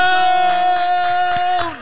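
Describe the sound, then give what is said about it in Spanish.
A crowd cheers loudly to welcome a guest on a Power Radio show, with a sustained high whoop holding steady before dropping off, and a few scattered claps coming through over about two seconds. “Me lo reciben con un fuerte aplauso”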